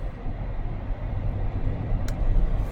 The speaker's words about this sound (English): Okay, a lot of traffic.